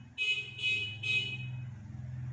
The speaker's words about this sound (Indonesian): kalian dengar nggak sih ada klakson oh itu bapak jualan